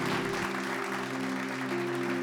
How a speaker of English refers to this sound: Amen, church. Let's give God a shout and a clap.